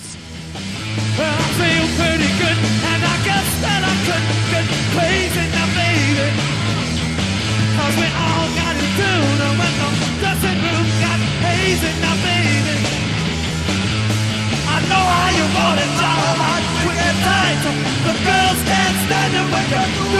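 A loud, dense rock song with distorted guitars, pounding drums and crashing cymbals plays at a steady, driving pace throughout, with shouted vocals woven into the mix.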